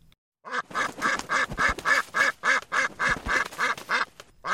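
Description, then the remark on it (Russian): A duck quacks rapidly and loudly, a dozen or so nasal calls in quick, steady succession, with no other sounds around it. “В поисках потерянных вещей мальчик ощупал землю под оградой, но вдруг оттуда выбежала утка.”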